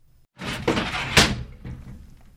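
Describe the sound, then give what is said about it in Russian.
A woman pushes a door shut, a brief creaking swing ending in a single solid thud, followed by a faint fading rattle. “Женщина закрыла дверь и что-то громко прокричала.”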